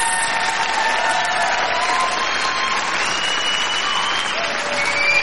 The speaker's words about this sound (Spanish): señor, aplausos. ¿Para quién? Estrella Morenas.